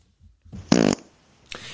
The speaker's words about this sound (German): Ich finde auch, Furz Nummer 7 äh, tritt an gegen Furz Nummer 8. Wir hören Nummer 7.